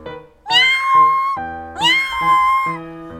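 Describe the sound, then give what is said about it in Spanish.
A human voice imitates a cat, giving two sweet, drawn-out meows in quick succession, each rising then gliding down. Fairly loud, with no other talking. “Dijo el gato con un maullido dulce.”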